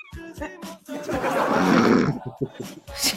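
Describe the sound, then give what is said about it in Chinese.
A person imitates loud snoring with one long, rough, rasping snort lasting about a second, bracketed by short grunting vocal bursts before and after. “不是，有人在装，绝对不是我室友打的。”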